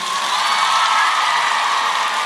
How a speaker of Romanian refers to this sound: După numărul de aplauze, am vrea să știm dacă sunt mai multe fete decât băieți în acest moment, acum la Iași. La 3, 2, 1 și toate fetele aplaudă.